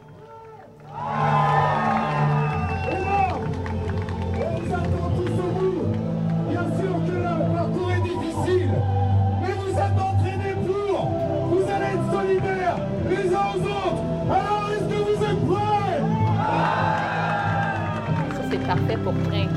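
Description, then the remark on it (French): A large crowd roars and cheers continuously, a dense wash of voices and shouts that swells suddenly after a quiet opening and stays loud throughout, with tonal calls rising above the din, at the UTMB trail race. “une foule.”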